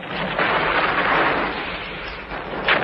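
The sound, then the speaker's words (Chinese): A dense, continuous rumble of artillery gunfire from the invading Japanese army in China forms a steady roaring wash of sound, fairly loud throughout, with a brief sharper swell near the end and no voices. “可惜，正常的求学生涯只持续了一年多，侵华日军的隆隆炮声就让陈叔和同学们陷入疲于奔命的逃亡生涯。”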